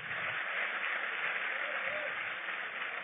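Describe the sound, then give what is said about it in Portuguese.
A crowd breaks into steady, dense applause, a continuous wash of many hands clapping at an even level from start to finish, with no one speaking over it. “Aplauda ele bem forte aí.”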